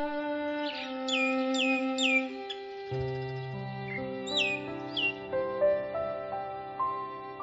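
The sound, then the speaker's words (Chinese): A myna bird calls in a varied string of sharp repeated chirps, clear whistled notes and a few lower, rougher tones, moderately loud with no voices. “我要大声唱歌，唱鸟儿，唱我，一只云朵一样的八哥。”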